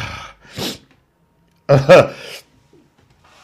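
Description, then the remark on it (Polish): A single loud sneeze: a brief sharp intake of breath, a short pause, then the forceful burst, followed by quiet. “No to śpiewamy sobie mm, teraz, a ja kichnę sobie w międzyczasie, tak zwane, jak będziecie śpiewać sobie E, tutaj e, do spółki.”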